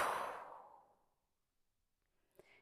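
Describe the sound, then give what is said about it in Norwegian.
A long, breathy exhale in a guided breathing exercise, after breathing in through the nose and holding the breath, strongest at the start and fading away over about a second, followed by quiet and a faint small click. “og pust ut.”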